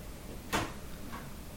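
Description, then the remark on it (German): A single muffled clunk of a door being opened or shut, followed by a fainter knock about half a second later, with quiet room tone and no talking. “Weißt ja, du, Türen so können sie nicht Tür bedienen.”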